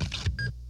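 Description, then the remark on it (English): A quick scraping swipe of a credit card through a reader, followed by a short, bright electronic beep, all over within a second. “That's the sound of a credit card sliding through a scanner.”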